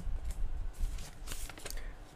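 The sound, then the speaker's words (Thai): Paper rustles and crinkles as the pages of a document are flipped to its last page, a series of crisp bursts over a couple of seconds, with no one speaking. “แล้วสิ่งที่ว้าวกว่านั้นฮะไปเปิดดูหน้าสุดท้าย ขออภัยที่อาจจะมีเสียงกุ๊บกุ๊บกับกับในตอนเปิดนะฮะ”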